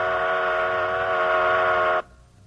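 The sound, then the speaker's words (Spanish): A loud, steady whistle from a stationary train holds one unchanging pitch for about two seconds, rich in harmonics, then cuts off abruptly, leaving only a faint low hum. “Un tren estacionario emite ondas de sonido en círculos perfectos, como las ondas en un estanque.”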